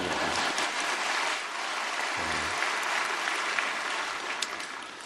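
An audience breaks into sustained applause for their pastor, a dense, steady patter of many hands clapping that holds at an even level for several seconds before thinning slightly toward the end.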